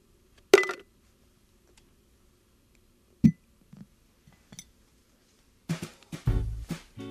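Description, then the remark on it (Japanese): A coaster is dropped into a glass jar to be stored: a sharp clink, a second knock a few seconds later, a few faint taps, then a burst of rattling and rustling as the jar is handled. “ではこのコースターもガラス瓶に入れて保存したいと思います”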